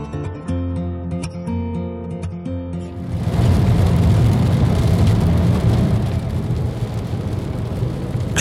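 A few seconds of soft tonal music give way to a steady, loud rumble of a car driving along a road, the dense road and engine noise continuing evenly to the end.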